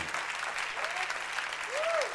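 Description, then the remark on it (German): A church audience at a worship service claps for the risen Jesus in a dense, continuous wash of applause, with a brief rising-and-falling tone, like a whistle or cheer, near the end. “Ich würde sagen, lass uns Jesus den Auferstandenen nochmal einen richtigen Applaus geben.”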